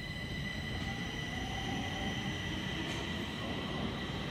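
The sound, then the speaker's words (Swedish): A subway train rumbles steadily through the underground Hallonbergen subway station, a dense low roar topped by several thin, sustained high-pitched whines, with no voices. “Den långa rulltrappan upp från tunnelbanan tar en rakt in i Hallonbergens lilla centrumgalleria”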